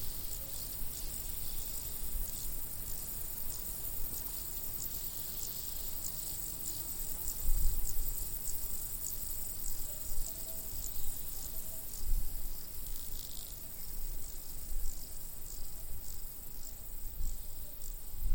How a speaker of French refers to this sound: une grenouille lance son chant. Cette ritournelle réveille en réponse le cœur de dizaines d'autres grenouilles cachées dans l'entrelac des broméliacées